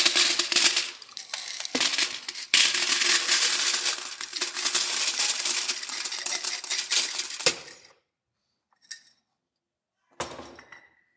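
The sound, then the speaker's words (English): A long, dense cascade of coins pours and clatters into a savings jar for several seconds, then stops; a couple of isolated clinks follow after a short silence. No voices. “He's going to need a bigger jar if you've been to Disney.”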